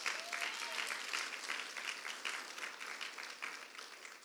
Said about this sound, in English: How many of you? Let's give God a, big applause.